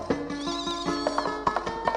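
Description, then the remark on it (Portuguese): A donkey brays loudly, a harsh, wavering call with rhythmic pulses that rises and falls across the whole short moment, with no talking. “Ô, oh, jumento bom, meu filho, volta aí, vamos lá, garoto, vamos pro Ceará. Desencosta, jumento, bicho bom danado”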